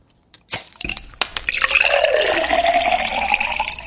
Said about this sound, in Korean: 아, 한 잔 마시고 싶죠. 일부에 나가는 노래 듣다가 이 병뚜껑 따면서 확확 쏟아지는 이 소리 나오면은 어떤 노래에서 들었어요 하고 가수 이름이나 노래 제목이나 모르시겠으면 그냥 들리는 가사 보내셔도 돼요.